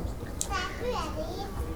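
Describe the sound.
Children's voices chatter and call out in a library, high-pitched and overlapping, with a brief sharp squeal in the middle against a steady indoor background hum.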